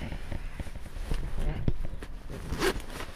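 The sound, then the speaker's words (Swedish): A life jacket zipper is pulled up in a couple of quick, scratchy strokes, with soft fabric rustling and light handling clicks around it. “Först dragkedjan.”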